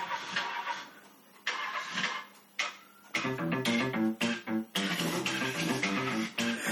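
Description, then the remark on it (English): A buzzy, rasping low synthesizer tone pulses through a band's most famous song, sounding almost like a motor revving. Choppy bursts give way to a steady rhythmic pattern, loud, with no voices. “It's only now, and it must be through the speaker because even though through headphones and through those other speakers from my laptop, I have never noticed the fart in a song until now”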